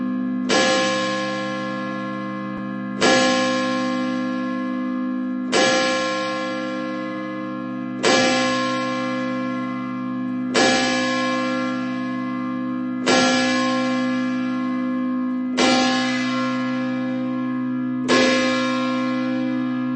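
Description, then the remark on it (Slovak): A church bell tolls eight times at a slow, steady pace, each loud, clear strike leaving a long humming resonance that carries into the next. No voices are heard. “Zvony sa zväčša inštalovali na kostolné veže.”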